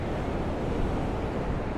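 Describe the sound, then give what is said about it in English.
A steady, broad roar of ocean surf washing onto the shore, constant and fairly loud throughout, with a rough, windy texture and no voices. “This access to this beautiful ocean should remain open all the time for the common man like me to come out and feel like”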